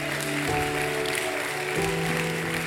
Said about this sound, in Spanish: Vamos, si usted lo cree, denle un aplauso mejor al Señor.